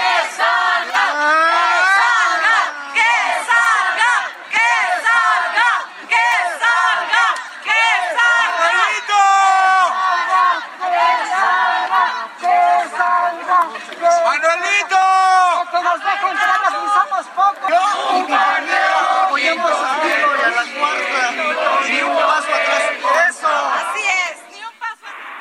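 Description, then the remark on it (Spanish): A large crowd at the Palacio Nacional chants and shouts in unison on an afternoon, waiting for President Andrés Manuel López Obrador to appear on the palace balcony. A dense, loud roar of many voices rises and falls in steady rhythmic bursts that continue throughout. “Bueno, pues ahí parte del ambiente, Adela, que se vivió el día de ayer en la tarde en Palacio Nacional, donde sí había mucha gente, era en los alrededores, en Correo Mayor, en Menustino Carranza,”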